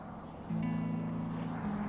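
A steady low engine drone of car traffic passing at a roadside starts abruptly and holds at a fairly constant pitch, with faint background hiss and no talking.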